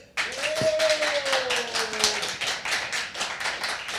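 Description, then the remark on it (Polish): A crowd bursts into sustained applause, dense rapid clapping filling all four seconds at a steady loud level, with a brief whistle-like tone rising above it early on. “Chcesz usłyszeć jakieś owacje? E, oczywiście. To próbujemy!”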